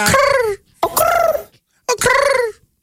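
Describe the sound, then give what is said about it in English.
A person voices three loud, drawn-out hooting calls in imitation of a pigeon, each about half a second long with short pauses between. “Maybe a cold pigeon, its vocal cord is a little.”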